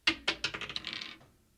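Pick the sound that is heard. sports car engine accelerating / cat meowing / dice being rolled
dice being rolled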